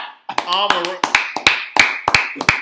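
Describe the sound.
A series of about eight sharp hand claps in an uneven rhythm, crisp and fairly loud, with voices talking and exclaiming underneath at the start.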